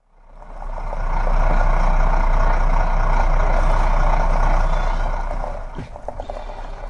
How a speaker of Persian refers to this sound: به سرعت کامیون را در سنگلاخهای کوههای اطراف سراوان میراندم